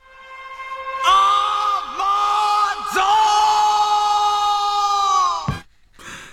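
A male singer lets out a long, loud, sustained shout in a theme song played over driving music, the held cry wavering slightly for several seconds before cutting off sharply, followed by a brief burst of sound.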